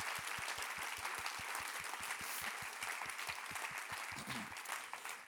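A crowd in a church applauds steadily for about five seconds, a dense wash of clapping at an even, fairly loud level, with a regular low thumping pulse running beneath it.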